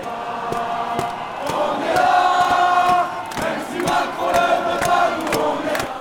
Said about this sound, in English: song you're hearing here, On est là, which translates to Here We Are, was once a rallying cry of the Yellow Vests, now adopted more widely by the rest of the movement.